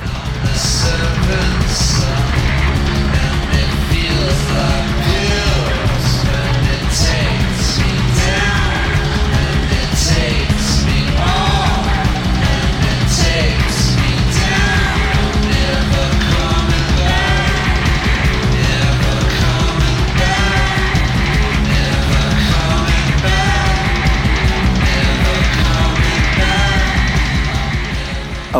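A loud, dense rock song plays throughout, with pounding drums, crashing cymbals and distorted guitars driving under shouted vocals, the drummer also singing co-lead vocals, the full mix staying heavy from start to finish.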